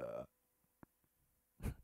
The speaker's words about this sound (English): That was a great ratio of time to move my uh, mouth away from the microphone before I did big burp.